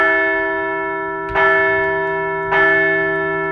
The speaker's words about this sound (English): Let's ring that bell again.